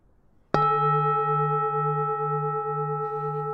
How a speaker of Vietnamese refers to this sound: Tiếng chuông chùa vang vọng giữa thinh không, thâm trầm giữa náo nhiệt, ngân nga giữa bể dâu. Là nơi nhiều người tìm đến để dưỡng tâm an và hướng tới những điều thiện lành.